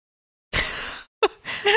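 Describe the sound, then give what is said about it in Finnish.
Someone yawns: a long, breathy inhale, then a brief pause and a voiced, groaning exhale that trails off at the end. “Anteeksi, kun mä... Ei, haukottelepa.”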